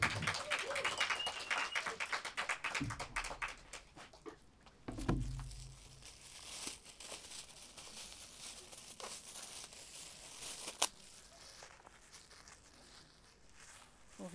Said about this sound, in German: Einen tobenden Applaus für